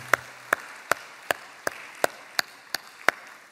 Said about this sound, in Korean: 한 주일 동안 우리의 기도를 들어주신 하나님께 아, 영광의 박수를 올려드리겠습니다. 아멘.